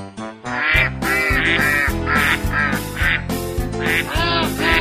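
Loud duck quacks repeat in quick, uneven bursts over a steady musical backing with a low, pulsing bass line, continuing throughout without any talking.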